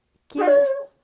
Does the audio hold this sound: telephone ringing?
no